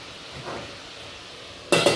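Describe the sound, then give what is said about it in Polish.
A fork scrapes and clinks against a pot while turning meat slices frying in it, with a faint sizzle over a quiet background, then a short burst of metallic clatter near the end. “Więc delikatnie przytykamy, sprawdzamy najpierw widelcem, gdzie jest plasterek, a później ewentualnie dopiero palcem.”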